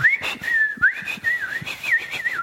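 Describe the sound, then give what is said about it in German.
A person whistles a steady, warbling melody in imitation of melodic birdsong, gliding up and down with small quick trills for a couple of seconds, with no talking. “ich weiß nicht, wie gut man das Gepfeife hier hört.”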